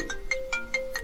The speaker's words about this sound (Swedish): Och det är min telefon som... Eh, som ja, det är klart det är. Vi andra har ju lite hyfs här att stänga av våra telefoner. Så att, eh, eller i alla fall sätta på ljudlös.